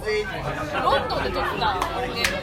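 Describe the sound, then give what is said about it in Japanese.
Dense crowd chatter recorded in London fills the space, many overlapping voices murmuring at once with no single speaker standing out, steady and moderately loud like a busy public place. “ロンドンで撮った音源だ”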